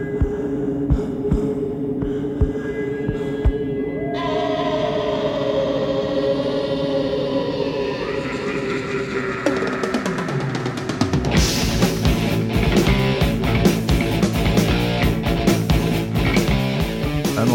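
A steady, muffled heartbeat thumps low beneath a droning hum, slowly joined by rising tones before full-band music crashes in and takes over loudly.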